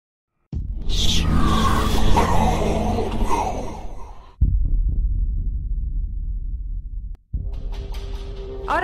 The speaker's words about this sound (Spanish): estamos escuchando de fondo el tráiler de Deeply Dark, el segundo videojuego de Daniel Simmons